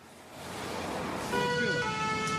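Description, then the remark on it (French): A fire engine siren draws closer over rumbling traffic noise as firefighters arrive urgently in Châtenay-Malabry, Hauts-de-Seine, where a bin set alight by students caught fire near a gas pipe. It grows louder until its steady wailing tone rings out clearly near the end. “En urgence, les pompiers arrivent à Châtenay-Malabry.”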